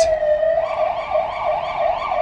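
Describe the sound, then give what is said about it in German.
A loud ambulance siren passing on a city street in Bucharest, starting as a steady held tone and then switching into a fast, repeating rising-and-falling wail that continues throughout. “Nicht nur die Frauen. Auch die äh, Krankenwagenfahrer.”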